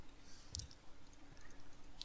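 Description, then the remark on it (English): Soft, scattered clicks of typing on a computer keyboard, a short cluster near the start and a lone tap at the end, quiet with no voices. “Did I just derail you by typing to you?”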